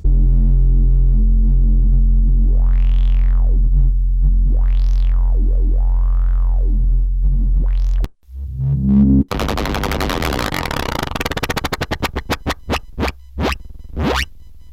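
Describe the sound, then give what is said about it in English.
A loud synthesizer bass track: a deep, droning bass tone with slow resonant filter sweeps rising and falling, then a harsh, gritty distorted section ending in rapid stuttering pulses. No voices. “First one we'll hear in the pack of ten is bass.”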